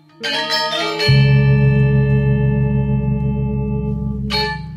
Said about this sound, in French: Soudain, elles étaient tirées de leur léthargie par un coup retentissant de gong.